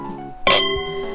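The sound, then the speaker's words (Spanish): Wine glasses touch in a single bright clink for a toast, the high ring lingering and fading over a low background hum. “Salud, amigo.”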